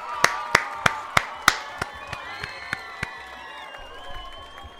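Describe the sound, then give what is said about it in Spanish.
An audience applauds at the end of a talk, about ten sharp, evenly spaced claps that grow fainter, with a murmur of cheering voices drawn out underneath. “Gente, tremendo aplauso, ¿no?”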